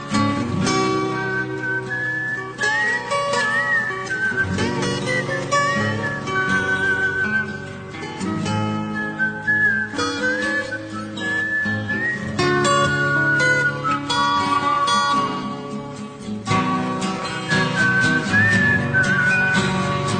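A clear, loud whistled melody carries the tune in short rising and falling phrases over steady guitar-driven rock music, the opening of a slow ballad with no voices.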